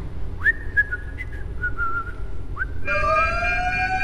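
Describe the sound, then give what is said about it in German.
A synthetic alarm siren: several short high tones swoop up and hold, then a louder, buzzier wail rises slowly and sustains to the end. No voices. “Alarm! Alarm! Nervensystem an Gehirn! Bitte sofort melden!”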